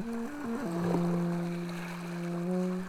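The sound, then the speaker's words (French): A small steel-hulled sailboat gliding peacefully along the coast: a low, steady humming drone that wobbles in pitch at first, then settles, over a soft continuous rush of water, moderately loud, with no voices. “notre petite coque d'acier longe paisiblement la côte”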